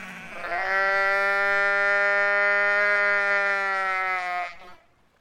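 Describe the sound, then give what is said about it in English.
A single injured sheep, its hind legs jammed in a crack between two rock ledges at an island's southern tip, lets out one long, drawn-out loud bleat, holding steady for about four seconds before breaking off. No voices or other sounds accompany it. “The sheep's hind legs were jammed in a crack between two ledges.”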